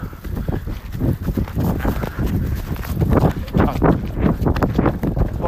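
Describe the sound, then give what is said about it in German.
Quick, rhythmic footsteps pound steadily on a hard surface, fairly loud, as people run, with faint voices and breathing mixed in. “Komm. Wir rennen jetzt.”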